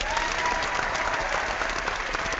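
A dense burst of audience applause, many hands clapping at once in a steady, continuous patter that stays loud and even for a couple of seconds, with no talking over it.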